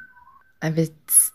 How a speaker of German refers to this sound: Sorry, ihr hört meinen Freund im Hintergrund pfeifen.